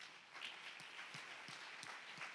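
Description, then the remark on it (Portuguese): A church audience claps hands during a sermon in a steady, rhythmic beat, the sharp claps landing roughly three times per second over a dense wash of crowd applause, with no talking. “E se você crer que Deus verdadeiramente está passando agora com as mãos na tua mente, na tua cabeça, e está limpando a tua cabeça, bata palmas para Jesus”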